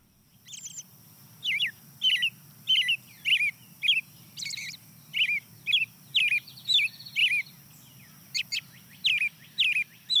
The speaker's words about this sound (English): Starts off with the American robin, the early riser, hear some birds in the distant background, but the next bird to join is a field sparrow.